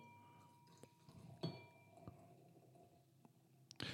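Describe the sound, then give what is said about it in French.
Beer is poured to refill a glass, a steady liquid rush punctuated by a few sharp glassy clinks and taps, with no voices. “Il, reste de la bière. je vais peut-être te resservir.”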